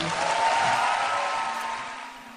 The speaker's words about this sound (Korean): 이렇게 따뜻하게 환호해 주셔서 감사합니다.